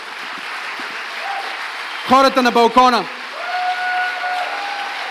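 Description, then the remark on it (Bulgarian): A church audience applauds in a steady, dense wash of clapping that runs the whole time, while a man speaks briefly over it and a faint sustained tone hums beneath. “О, ако ръкопляскаш, ръкопляскай, като че наистина вярваш.”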